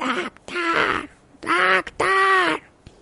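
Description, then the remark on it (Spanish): Someone imitates a crow's caw: four raspy, nasal calls in quick succession, the later ones longer and drawn out, fairly loud, with no other talking. “Que al principio, pues el cuervo vemos que dice...”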